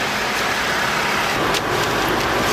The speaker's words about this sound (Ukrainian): Водит старым дедовским способом машину